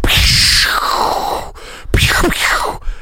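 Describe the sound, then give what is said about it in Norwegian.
A voice imitates a cannon shot: a loud, breathy whoosh that sweeps downward, a brief pause, then a second harsh, noisy burst of breath. “For, for, å liksom kicke i gang Arsenal Bournemouth, hva slags lyd Bournemouth ble kanonisert, og det hørtes omtrent sånn her ut.”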